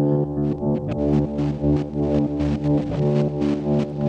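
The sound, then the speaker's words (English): A loud, gritty overdriven synth drone, synth noise run through a Noise Engineering Ruina overdrive module, holds steady throughout, its buzzing harmonic tone layered with hissy noise bursts that pulse in a loose, uneven rhythm. No one speaks. “And then I'm running that noise through the uh, the Ruina from Noise Engineering.”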